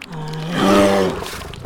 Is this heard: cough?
no